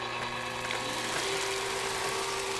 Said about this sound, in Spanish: Nos vamos, nos damos la vuelta y según nos damos la vuelta, oímos el ruido inconfundible de una trituradora de papeles.